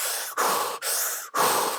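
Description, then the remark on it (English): Rapid, forceful hyperventilated breathing, demonstrated in place of calm breathing, four quick breaths in and out with barely a pause between them, loud, with no talking. “So I guess an example would be more of a instead of the calm breathing, more of the hyperventilated breathing like”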